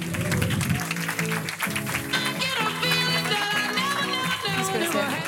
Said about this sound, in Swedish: Välkommen upp på scenen, Jenny Hermansson. Stor applåd!